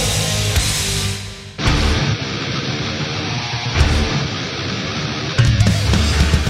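Loud, dense melodic death metal plays with no talking: distorted guitars fill the whole range over pounding drums, with cymbal crashes marking section changes every couple of seconds.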